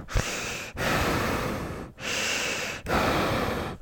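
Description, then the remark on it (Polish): A voice imitates the heavy breathing of a woman standing behind someone at a shop checkout and breathing onto their neck: three long, loud, rasping breaths in steady succession, each separated by a brief pause, with no talking. “I e, jak już położysz swoje rzeczy na, na taśmę, to ona wtedy będzie stała za tobą i będzie oddychała”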